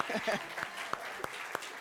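An audience applauds steadily, a soft wash of many hands clapping, with a few sharper individual claps popping out above the crowd at irregular moments.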